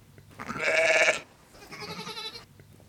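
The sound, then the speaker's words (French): Sheep bleating in a flock on a mountain pasture: two drawn-out, quavering calls in quick succession, the first louder and the second softer and a little longer, with no talking. “Donc le berger, il doit, son premier boulot, c'est conduire correctement les, moutons sur la montagne, les emmener là où il pense que c'est bien de les emmener et garder la cohésion du troupeau.”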